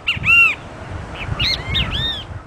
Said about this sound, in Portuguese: é uma das aves mais comuns do Brasil, né? O bem-te-vi.